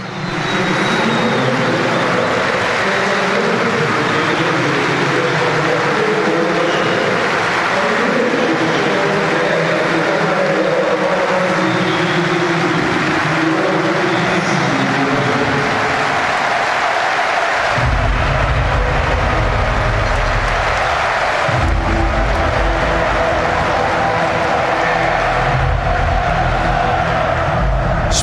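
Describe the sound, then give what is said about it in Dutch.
A large stadium crowd of Feyenoord supporters applauds their team's players after a loss, a dense continuous wash of clapping and noise that stays loud throughout, with a deep rumbling surge partway through and no clear speech. “En die spelers gaan nog Richting, eh, ja, niet echt richting dat vak, denk ik, om het applaus te oogsten.”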